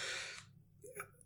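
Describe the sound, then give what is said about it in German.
A single sneeze: a short, sharp, breathy burst that stops abruptly, followed after a brief pause by a faint, short vocal sound. “Gesundheit.”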